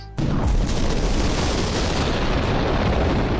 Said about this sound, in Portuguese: E aí, você vê o clarão de uma grande baforada de fogo saindo do meio desses olhos.